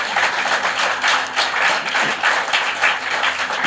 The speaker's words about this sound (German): Das ist euer Applaus.